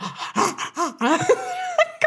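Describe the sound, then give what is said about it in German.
A voice imitates gasping for air, as when air rushes into the throat at a certain angle on a roller coaster: a string of strained, wheezy breaths and choked vocal gulps over about two seconds, fairly loud, with no words spoken. “reingeht, dann kann ich nicht atmen, dann bin ich so.”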